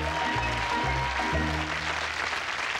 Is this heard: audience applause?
yes